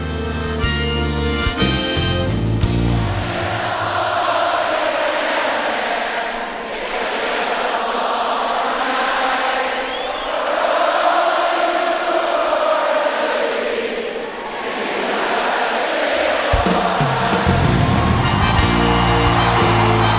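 A large concert crowd sings a melody together in unison, sustained and loud, with the band dropping out in the middle as the audience takes over near the end of the song, and instruments returning at the start and end.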